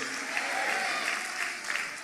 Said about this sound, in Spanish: Yo le pido esta noche que por favor dé un fuerte aplauso, un grito de júbilo y diga, esperamos la venida de Jesucristo. Dice amén esta noche.